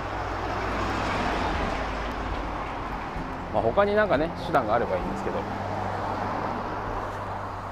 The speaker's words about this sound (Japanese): ちょっと今日はもう音が車の音も多すぎてこれ以上撮ってもなかなかしんどそうなんで今日はこれぐらいにしとこうかな